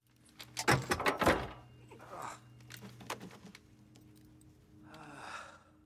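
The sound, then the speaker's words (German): A car door shuts with a couple of heavy thuds, followed by softer rustling and clicking movement and a faint breathy hiss near the end. “Das klingt ja schon fast das wie ein Auto. ist auf jeden Fall eine Tür.”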